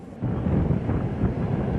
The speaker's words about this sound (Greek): ελικόπτερα των κινέζικων ενόπλων δυνάμεων πετούν πάνω από τον νησί Πινκτάν σε απόσταση αναπνοής από την Ταϊβάν.